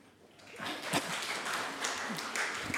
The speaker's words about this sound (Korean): 그 애들한테 박수 좀 쳐주세요.